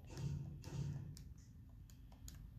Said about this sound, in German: Klar, Digga klopft auch wieder.